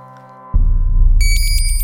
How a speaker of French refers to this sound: Le réveil sonne. Il ne s'arrête pas.